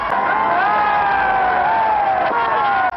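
A large crowd cheers and roars continuously, greeting Norwegian troops from Sweden as they pass Loenga outside Oslo in 1945, a dense wall of jubilant voices with rising and falling shouts, loud and sustained throughout.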